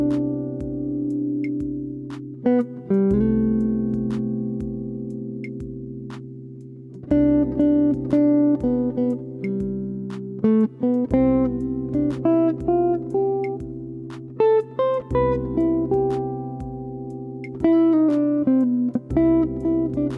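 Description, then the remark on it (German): A few bars of instrumental music in the Ionian mode: a steady sustained low tone underneath while a melody of plucked-sounding notes moves above in clear phrases. Moderately loud, with no talking. “Ich spiele mal ein paar Takte über Ionisch, und versuche es einfach nicht nach allem meine Entchen klingen zu lassen.”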